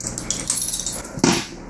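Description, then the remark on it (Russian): Coins being tossed to cast an I Ching (Book of Changes) hexagram, the third toss landing two heads: a cluster of bright metallic clinks and jingles, followed by a louder clattering thud as they land together. No voices. “Третий бросок у нас два орла, сплошная линия.”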